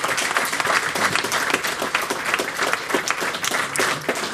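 An audience breaks into steady applause congratulating a league championship win, many hands clapping together in a dense, continuous patter that stays fairly loud throughout, with no one speaking over it.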